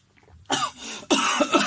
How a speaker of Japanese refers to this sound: その水飲んで、うんちょっと激しめに咳き込んでくれへんあ俺が、うんオッケーオッケーちょっと飲むね